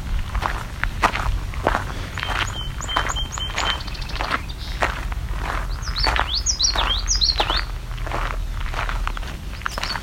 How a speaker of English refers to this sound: It's the common yellow throat, the Wichita Wichita call, or Wichita Wichita, depending on who you ask.